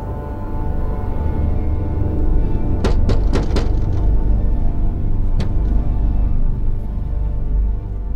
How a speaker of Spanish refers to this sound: Llama a la puerta y y unos gatos correteando por fuera.